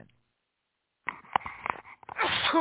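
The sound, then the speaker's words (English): A person sneezes during pollen season after a moment of silence: a few sharp, breathy bursts build up, then a loud voiced explosive release that trails off. “It's uh, pollen season, so for me, I'll be sneezing like a crazy person.”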